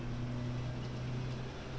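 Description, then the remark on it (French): A car starting up next to a home hums, a steady low rumble with a droning tone that holds evenly throughout, with no talking over it. “oula, je sais pas si vous entendez la voiture qui démarre à côté de chez moi.”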